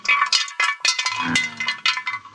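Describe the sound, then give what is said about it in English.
A chicken leg bone rattles and clatters hollowly inside a metal frying pan, a quick run of sharp clinks and knocks tumbling irregularly for a couple of seconds with no talking. “Bones that bone sure sound hollow in that frying pan.”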